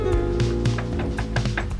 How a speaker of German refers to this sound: der an die Tür des Waggons klopfte.